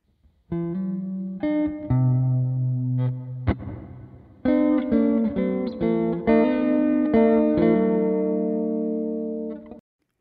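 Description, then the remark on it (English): A Squier Classic Vibe Strat electric guitar through a Vox Valvenergy Silk Drive overdrive and a Fender Marine Layer reverb plays a short sequence of sustained rhythm chords and notes with a gritty, reverberant tone, pausing briefly midway, then ringing out as the tail decays. No one speaks. “So what you just heard there was the Fender Marine Layer reverb added to our tone of our uh, Squier Classic Vibe Strat and our Vox Valvenergy Silk Drive, creating the foundation for our rhythm guitar tone”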